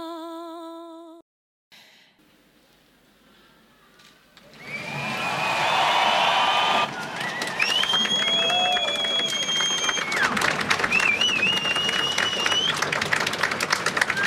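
A song's last sung note cuts off, a brief hush follows, then a large audience bursts into loud, sustained applause with piercing whistles and cheering that keeps building to the end.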